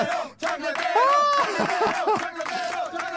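A loud crowd cheers and whoops over steady applause, with a rising whistle-like shout among many overlapping voices, sustained throughout with a brief dip near the start.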